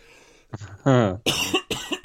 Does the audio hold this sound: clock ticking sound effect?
no